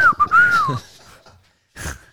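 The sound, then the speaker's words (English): A person whistles one short, bright blast with a quick rise and fall, imitating a referee's whistle. A brief breathy burst, like a laugh or exhale, follows after a pause. “A like, whistle, oh.”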